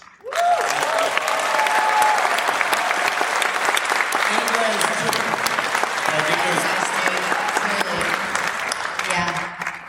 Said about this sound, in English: That's actually what he wanted, is everyone to stop clapping and then go, but you're the best.